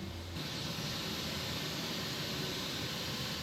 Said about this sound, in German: Der sogenannte Noise Kanzler ist jetzt auch noch mit einem Lautsprecher und meinem Aufnahmegerät verbunden, damit wir hören, was die Testpuppe mit ihren elektronischen Ohren hört. Wir spielen Pink Noise ab, das ist Rauschen wie im Flug.